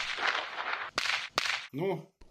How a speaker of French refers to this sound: Bon, j'ai encore quelques instruments et sont bizarres à te faire écouter. On y va On y va des clochettes, des serpentins, des pétards